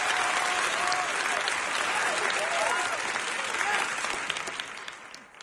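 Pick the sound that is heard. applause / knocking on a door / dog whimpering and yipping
applause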